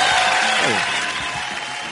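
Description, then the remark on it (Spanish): Loud, sustained applause from an audience fills the whole moment, a dense steady clatter of clapping, with a voice briefly audible beneath it. “Sobre todo la intensidad de los aplausos lo declaman.”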